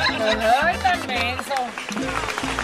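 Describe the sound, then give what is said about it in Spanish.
A burst of applause sound effect, a dense, steady clatter of clapping running the whole time, with excited voices and whoops rising and falling on top of it. “No entiendo por qué pones un aplauso cuando digo, ¿por qué?”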